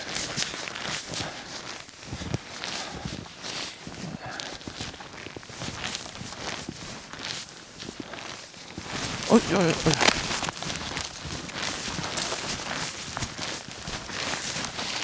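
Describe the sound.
Heavy, uneven footsteps of a person crunch and tramp steadily through rough ground in Uppland, Sweden, loud and clumsy, with the person briefly exclaiming partway through.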